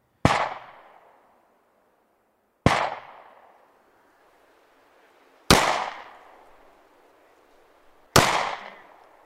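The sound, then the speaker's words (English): Four loud gunshots ring out alone, roughly evenly spaced a few seconds apart, each sharp crack trailing off in a long, echoing decay before the next shot. “At least the gun recordings that I've done are pretty unusable without compression because they're so freaking dynamic.”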